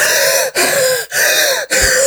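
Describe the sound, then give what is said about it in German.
A voice imitates the heavy, wheezing breathing of a person doing a knee-raise and hand-clap exercise, with four loud, raspy breaths in a steady rhythm separated by brief pauses, like panting during hard exercise. It is alone, with no talking. “Und da, das ist wirklich das Einzige beim Sport, wo ich wirklich konkret, also da, da höre ich mich so an, original. Ich glaube, ich kann es ganz gut nachmachen.”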